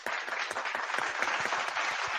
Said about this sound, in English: Don't I got an applause? There we go.